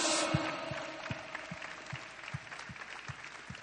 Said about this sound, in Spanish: aplauso a Dios.